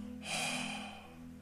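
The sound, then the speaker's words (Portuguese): A single warm, breathy exhale from the mouth, a soft airy rush that swells quickly and fades over about a second, with no voice or talking. “Agora olha o bafo.”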